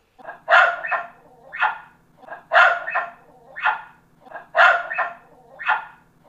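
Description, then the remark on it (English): A dog barks repeatedly, in three quick bursts of paired woofs with short pauses between, loud and clear with no one talking. “Hey, Abby, handling dogs is the next topic. Are you going to be on your best behavior to set a good example?”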